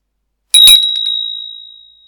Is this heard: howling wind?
no